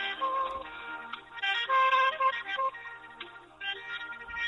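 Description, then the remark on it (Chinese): Soft, steady ringback music plays while a call waits to connect, a mellow melody with sustained tones and a slow, drowsy feel, with no one speaking. “啊，听这音乐好想睡觉啊！”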